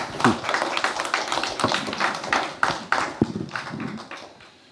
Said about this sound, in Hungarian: Köszönjük szépen. Most is szabad tapsolni.